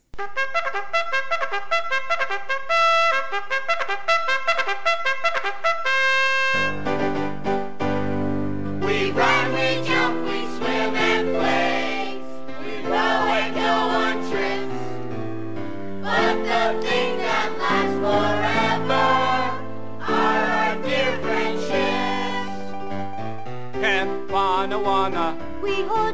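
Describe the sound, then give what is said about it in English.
The theme song of the kids' sitcom Salute Your Shorts opens with a few seconds of bright instrumental notes, then a group of children sings a bouncy melody together over steady, upbeat backing that stays loud throughout. “So, my number 10 is actually from a kids' sitcom, and it's one that a lot of people I do think can sing along together uh, because the kids sing it in the opener, and I'm talking Salute Your Shorts.”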